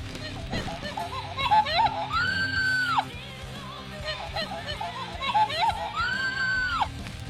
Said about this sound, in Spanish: Entonces, es un mono de peluche que habla, ¿vale? Os voy a poner al mono.